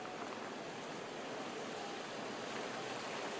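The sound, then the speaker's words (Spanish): Torrential rain from Hurricane Agatha pours down in Huatulco, Oaxaca, Mexico, in a dense, unbroken roar, a steady wash of hiss with no pauses or distinct drops, holding the same loudness throughout with no voices. “lo que se dice es que van a ser lluvias torrenciales como esta, porque la buena noticia fue que el huracán Ágata llegó a tierra aquí a las costas oaxaqueñas como un huracán categoría 2 y no categoría 3 como se esperaba”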